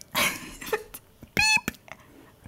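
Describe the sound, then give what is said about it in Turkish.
A person vocally imitates a shrill electronic beep with two short, strained, squeaky bursts separated by a brief pause, loud and close, with no words spoken. “Niye o birinin farenin götünü kıstırmış gibi bir ses? Niye acı çekiyor bu bip?”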